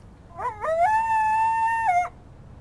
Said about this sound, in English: And the fog rolled in, and you heard the coyotes.